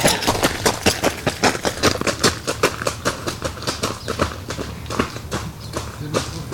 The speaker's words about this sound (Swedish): Det kommer några galningar springande här.